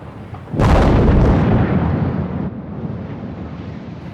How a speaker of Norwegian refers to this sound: Et smell tidlig ved sekstiden om morgenen, og det første av de rundt 150 meter høye tårnene faller sammen.